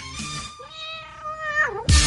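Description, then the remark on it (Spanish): A cat meows in one long, drawn-out cry that bends downward at the end, fairly loud, with a burst of noise before and after and no talking. “Ahí, el gato.”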